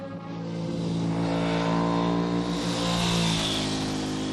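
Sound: racing car engine revving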